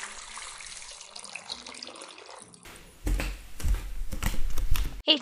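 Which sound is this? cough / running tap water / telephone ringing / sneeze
running tap water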